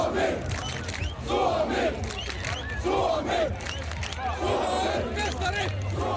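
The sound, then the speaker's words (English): A large crowd of thousands roars and shouts in sustained, dense celebration of Finland's men's ice hockey team winning the World Championship on home ice in Tampere, with surging waves of voices and a steady low rumble of noise throughout. “that sound you can hear in the background is the celebrations that greeted the win as thousands of people”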